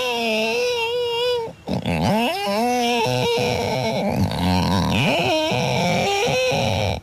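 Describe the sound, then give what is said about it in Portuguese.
On Rádio Comercial, someone mimics with their voice a mosquito flying in a room: a high, wavering whine, then creaky, bending sounds of a creaking door and loud, sobbing wails of a crying baby, one continuous vocal performance without ordinary speech. “imita aí uma melga a voar num quarto Repito, uma melga a voar num quarto com uma porta a ranger e um bebê a chorar.”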